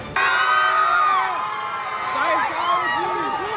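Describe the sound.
A large crowd of fans screams and shrieks continuously at the Rome, Italy premiere of the film Mission: Impossible – Dead Reckoning Part One, high-pitched voices overlapping in rising and falling wails, loud and sustained with scattered whoops throughout.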